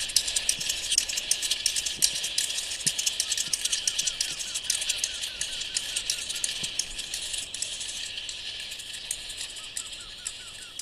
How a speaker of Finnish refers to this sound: Poikasten ääni on myös erikoinen. Se on mekaanisen kuulosta ahdistavaa tikutusta ja kitinää.